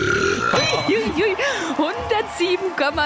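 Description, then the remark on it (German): A woman lets out a very loud, drawn-out burp of about three seconds, measured at 107.3 decibels, a croaky, rumbling belch whose pitch rises and falls in waves, powerful with no pause. “Sie ist die lauteste Rülpserin der Welt.”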